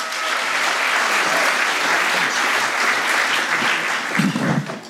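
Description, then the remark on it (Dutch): An audience in the Steigerzaal applauding steadily for René ten Bos and Arjen Klein-Herenbrink, a dense wash of clapping that holds at full strength for several seconds before starting to thin out near the end. “graag een hartelijk applaus voor René ten Bos, Arjen Klein-Herenbrink.”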